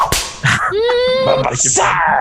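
A single sharp, loud whip crack snaps right at the start, followed by a drawn-out, wavering tonal cry and busy, noisy background sounds.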